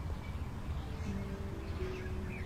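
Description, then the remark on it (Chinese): Faint wild birdsong in a natural setting with a bamboo grove and forest behind: a few scattered high chirps and short trills drifting over a steady low background hum, with no one talking. “可能你除了能听到，嗯，我语音当中的那些音乐声之外，还能听到大自然界中的鸟叫声。”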